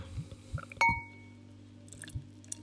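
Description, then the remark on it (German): A single bright glass clink with a short ringing tone, surrounded by soft handling and sipping noises at a quiet level, as someone drinks from a glass. No one speaks. “Ich trinke es aus dem Glas.”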